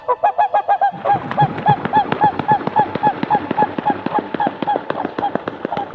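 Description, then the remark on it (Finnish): A whooper swan gives a long, steady series of loud trumpeting honks, about three per second, over a rough rustling, splashing background that starts after the first second. “Vaikka laulujoutsen on Suomen kansallislintu, alkaa joutsenten myyttinen luonne unohtua.”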